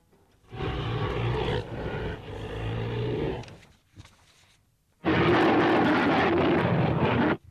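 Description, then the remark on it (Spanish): Two long, loud, rumbling roars of a giant ape, a designed sound effect created in 1933, the first lasting about three seconds and the second about two, separated by a brief pause, harsh and booming with nothing else around them. “vamos a empezar por los fantásticos y asustadizos rugidos de King Kong”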